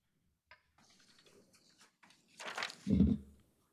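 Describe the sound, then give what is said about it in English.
After a few faint clicks and rustles, water splashes briefly as it is poured onto a plant as a libation, ending with a soft low thud. No one speaks. “We know that water is life, and so we will be pouring life onto life.”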